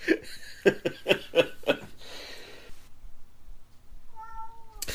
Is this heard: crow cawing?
no